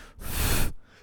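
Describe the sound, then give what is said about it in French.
A person imitates a sudden breath, one sharp, loud gasp of air lasting about half a second, with no talking around it. “c'est un souffle qui m'a réveillé tout à l'heure.”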